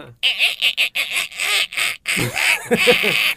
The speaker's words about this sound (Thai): โอ้โหเสียงประตูนี่แบบว่าไม่ไหวแล้วนะเนี่ย